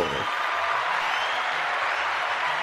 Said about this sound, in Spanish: Aplauso.